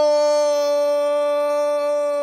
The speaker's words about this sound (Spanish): ¡Wow! Ese es el grito de gol más largo que he escuchado.